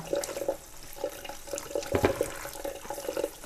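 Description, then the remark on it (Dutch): Running warm tap water splashes and sloshes over strawberries being washed in a bowl, with irregular bubbly bursts and small clunks over a steady rushing hiss; no one speaks. “Ik ga aardbeien met warm water schoonmaken.”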